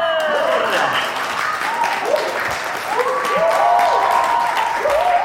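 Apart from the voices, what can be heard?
warm audience applause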